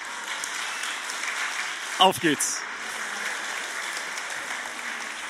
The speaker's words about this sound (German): Applaus.